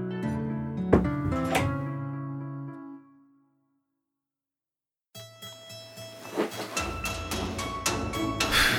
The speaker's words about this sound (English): Can you close the door, Mom? Quiet would be good for the resting, you know?